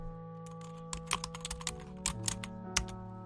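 Irregular clicks of typing on a computer keyboard, a quick uneven run of sharp taps with brief pauses, heard over a steady low hum with no one speaking.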